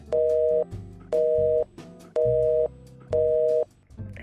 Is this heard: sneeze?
no